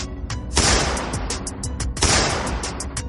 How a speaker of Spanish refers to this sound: Su pistola da dos tiros al aire.